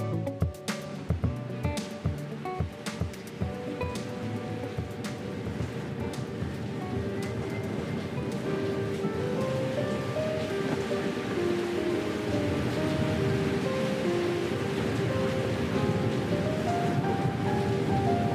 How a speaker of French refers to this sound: Au moment où je t'écris, le cyclone Aishen s'abat sur Tokyo. Nous sommes en septembre et comme tu le sais, les ouragans frappent l'archipel de plus en plus tôt.